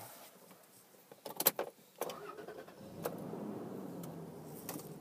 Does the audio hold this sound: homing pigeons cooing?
no